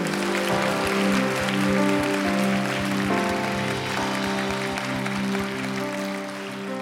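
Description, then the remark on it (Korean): An audience at a church worship service claps steadily for several seconds in thanks and glory to God, a dense wash of hand claps over sustained organ or keyboard chords, with no voices speaking. “우리 그런 주님께 감사와 영광의 박수 한 번 더 올려드릴까요?”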